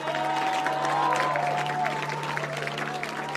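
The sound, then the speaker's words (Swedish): An audience at a worship meeting claps for all those who made the decision, steadily for the whole stretch, a dense, even patter of many hands at a fairly constant level, with faint sustained tones and a low hum beneath it. “Alright, skulle vi kunna ge alla de som tog det här beslutet en applåd?”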